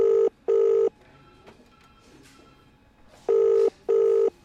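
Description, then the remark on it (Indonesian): An outgoing call's ringback tone: two paired bursts of a steady electronic ring, each burst a double beep, separated by about three seconds of quiet line hiss. “Karena bingung, aku meneleponnya balik.”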